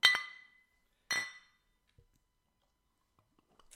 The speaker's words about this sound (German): So, ich möchte kurz trotzdem anstoßen. Ja, sehr gerne. Schön, dass du da bist.